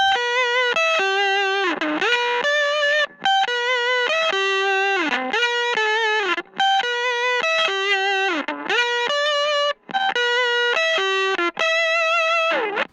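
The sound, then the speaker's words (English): An electric guitar heavily fuzzed through a Pep Box fuzz pedal, with no other effects, plays a bouncy melodic riff, its notes cutting off abruptly into brief gated silences between phrases; loud and dry with no other sounds. “I love the cool gatiness that you get from the pep box.”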